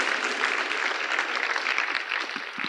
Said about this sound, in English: God bless you. Put your hands together for them.